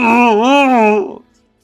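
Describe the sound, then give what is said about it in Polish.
A single voice imitates a guttural dying moan: one loud, drawn-out, wavering groan lasting about a second before trailing off into silence. “Wierzgając, trzymając, wiesz, nie krzyczał cały czas gdzieś, wiesz, robił takie dźwięki, które gardłowe, w których po prostu”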